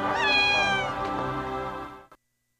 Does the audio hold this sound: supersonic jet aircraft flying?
no